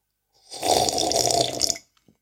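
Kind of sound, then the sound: food or drink, loud slurping of coffee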